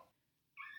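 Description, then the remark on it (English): A baby boy in the background lets out a sharp, high-pitched squeaking cry, a brief faint chirp followed by a louder sustained squeal, with no talking. “He's squeaking quite a bit. That's his cry.”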